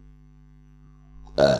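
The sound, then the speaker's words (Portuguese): A single short, loud burp erupts near the end after a near-silent stretch with a low steady hum, rough and throaty. “bom proveito, pá.”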